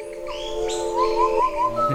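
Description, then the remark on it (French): A large, sturdy wren sings a low-pitched song of warbling, whistled phrases that rise and fall steadily for about two seconds, clear, with no talking. “c'est une autre classe de troglodyte, hein. Pourtant, Génétiquement, la différence n'est pas si loin, mais c'est un troglodyte euh, plus gros, plus costaud.”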